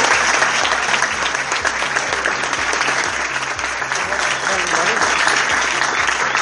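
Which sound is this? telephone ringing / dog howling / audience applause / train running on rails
audience applause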